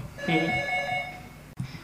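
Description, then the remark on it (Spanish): A doorbell rings once as someone is at the door, with a bright, sustained electronic chime of layered tones that rings out for about a second and then fades, followed by a short click and faint rustling. “Mira, alguien llama a la puerta.”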